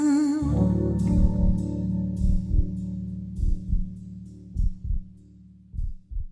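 A pop ballad's closing moments: a sustained, shimmering chord hangs in the air while soft, deep thumps land in pairs like a slow heartbeat, steady and fairly loud, with no singing.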